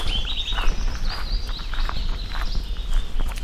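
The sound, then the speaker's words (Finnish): A willow warbler sings a thin, high, gently descending song phrase, while soft footsteps crunch steadily. No one speaks. “siinä pajulinnun säe.”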